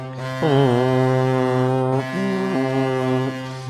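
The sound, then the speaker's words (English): An NHL hockey goal horn blares in long, loud, low-pitched blasts rich in harmonics, the tone shifting slightly between sustained sections over several seconds, with no voices. “The goal horns are coming back.”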